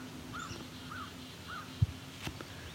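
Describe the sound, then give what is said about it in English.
Three evenly spaced crow caws ring out, fairly faint over a low outdoor rumble, followed by a brief thump and a short sharp click. “They harass rocks and crows often, and ravens too.”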